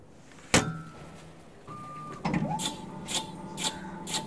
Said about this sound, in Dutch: Maar ze hebben ook nieuwe machines en dan kan je ook de dikte van je plak bepalen bij de bakker. En die klinkt zo.